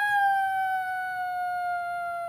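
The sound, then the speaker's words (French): A voice imitates a wolf howl with one long, steady, high tone that drifts slightly lower over about two seconds. It is clear and fairly loud, with no talking. “Tu sais faire le loup ah.”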